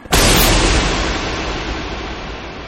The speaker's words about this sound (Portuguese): Ele grita uma palavra mágica: de... não! E o feitiço proferido gera uma explosão que quase cega você.